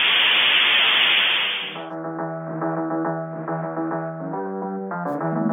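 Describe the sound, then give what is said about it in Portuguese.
A dial-up modem trying to connect while someone else is using the phone line: a loud burst of hissing static gives way to a steady warble of layered electronic tones that shift pitch in steps, with no voices. “então esperem um bom bocado porque alguém está a ocupar a linha de telefone e eu não consigo sinal no modem.”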